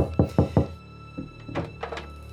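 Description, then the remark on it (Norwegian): A man knocks on a door: three heavy, hollow knocks in quick, even succession, loud, followed by a few fainter knocks and thuds. “Mannen som banker på døra, er ikke kortvokst.”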